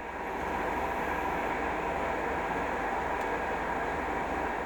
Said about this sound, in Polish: Byłem w tym pociągu i troszeczkę się zdziwiłem, bo był środek wakacji, a ja byłem sam w przedziale co było dla mnie nie do pomyślenia. Dlatego też nagrałem te dźwięki jadącego, pędzącego pociągu i na tym nagraniu nie usłyszycie innych osób siedzących